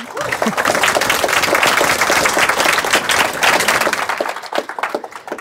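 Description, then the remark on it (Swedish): An audience breaks into sustained applause, many hands clapping in a dense, steady wash that stays loud for several seconds before thinning toward the end. “Får man en applåd?”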